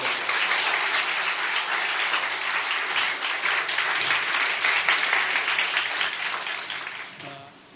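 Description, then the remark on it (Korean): A church audience breaks into loud, sustained applause offered to God, a dense steady clatter of many hands clapping at once that holds for several seconds before tapering off at the end. “할렐루야 우리 하나님께 큰 박수 올려서”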